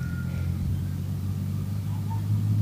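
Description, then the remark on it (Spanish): A taxi rolls steadily along a country road after leaving the town terminal in Sopó, its engine and tyre rumble forming a continuous low drone, heard from inside the vehicle with no talking. “Luego llegarás a la terminal del pueblo en Sopó, un lugar pequeño pero bastante funcional, y desde ahí agarras un taxi con un par de amigos.”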